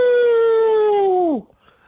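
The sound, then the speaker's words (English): A man with a head cold imitates a hound dog howl, holding one loud, steady note for over a second before it slides sharply downward and cuts off. “we like our guests to close us out with their best old hound dog howl”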